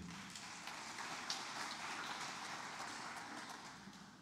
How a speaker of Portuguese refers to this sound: Tem terra boa aqui hoje? Então dá um aplauso, fica de pé.